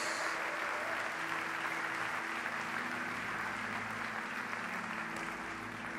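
Sustained applause from a large crowd clapping for Jesus, a dense, even wash of clapping that holds steady at a loud level for the full six seconds with no voices standing out.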